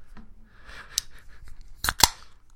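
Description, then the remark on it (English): A can of Strong Zero double chu-hi, an alcoholic drink, being cracked open: a few sharp metallic clicks and snaps, followed by a short burst of hiss, with no talking. “That's my strong zero double chew high.”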